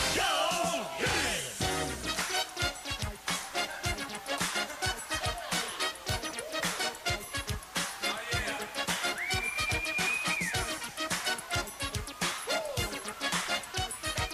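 A single shrill whistle holds for about a second over a busy, clattering backdrop of rapid rhythmic hits, with whinny-like squeals early on and near the end.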